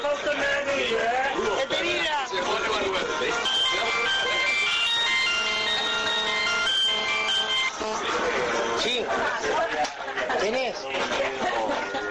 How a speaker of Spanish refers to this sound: Me están llamando por mi móvil.